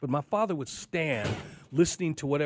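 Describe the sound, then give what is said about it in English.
A chair is pushed back briefly, a short rough grating noise that rises under a man's ongoing speech, moderately loud. “Sorry, that was a chair going back.”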